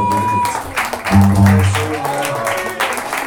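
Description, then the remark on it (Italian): An audience breaks into steady applause, a dense crackle of many hands clapping at once, with some voices and background murmur mixed in throughout. “Questo qui parte l'applauso.”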